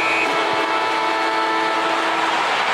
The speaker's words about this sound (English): The sea. the siren.